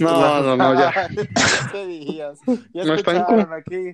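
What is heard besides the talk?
sneeze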